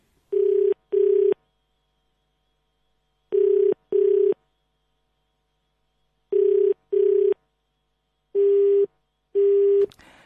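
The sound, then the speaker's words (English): A telephone busy tone beeps in steady paired bursts after a call to Father Smilo's phone drops during a Radio Veritas broadcast, four double beeps spaced evenly and clear, ending in a brief click. “And uh, that's uh, Father Smilo's uh, Father Smilo's phone that just dropped there. So obviously he's uh, not available to take our call.”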